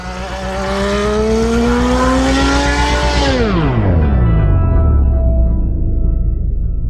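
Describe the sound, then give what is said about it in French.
A very fast racing car's engine roars loudly, its whine climbing as it accelerates, then sweeping sharply downward as the car rushes past. No voices. “Le problème, c'est que Jochen Mass, voyant arriver une voiture très rapide, s'écarte lui aussi à droite pour laisser la meilleure trajectoire à Gilles.”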